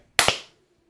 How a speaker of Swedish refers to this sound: Men vi, ska, vi ska göra så här allihopa. Vi ska räkna 1, 2, 3 och sen ska vi klappa. Det kommer låta så här. 1, 2, 3.